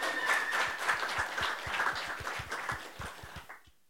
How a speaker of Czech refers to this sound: A rovnou, když jste si tak hezky zatleskali a přivítali mě, se vás zeptám, jak si myslíte, že bude vypadat svět za deset let?